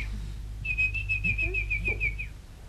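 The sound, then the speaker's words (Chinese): A girl whistles an imitation of a bird call: one sustained, high, slightly warbling whistle lasting under two seconds, over a steady low hum. “这丫头鸟叫两声，叫我闭口不言。”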